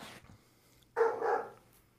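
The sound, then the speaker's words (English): Dogs bark in a single loud, harsh burst lasting about half a second, preceded by a fainter sound and followed by quiet. No one speaks. “Um, Germans are barking. Look out.”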